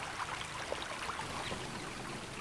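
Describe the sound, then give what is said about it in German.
A babbling brook in the Westerwald, Rhineland-Palatinate, Germany, trickles and splashes steadily, with small bubbling gurgles over a constant soft wash of water. It is fairly quiet, with no voices. “Vielleicht noch das Plätschern eines Baches oder das Zwitschern eines Vogels.”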